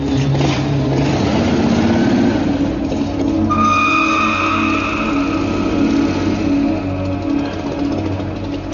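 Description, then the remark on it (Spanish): A motorcycle engine revs loudly, then the pitch climbs as it accelerates and pulls away, a steady mechanical roar with no voices, as James and Donald ride off on the motorcycle. “James y Donald se marchan en la moto.”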